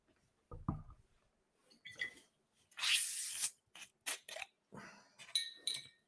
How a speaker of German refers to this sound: Hui, das war aber ein, schönes, ein schöner Zisch. Ein schöner ja, Zisch war das. Der Zisch, ja, ja. Zisch war sehr gut. Also, ähm, oh, das, das sprudelt auch schon sehr schön, sehe ich hier.